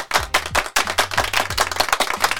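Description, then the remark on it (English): A loud, steady burst of crowd applause, many hands clapping densely and continuously, with a few deep thumping tones sweeping downward underneath. “Let's give those people a big round of applause.”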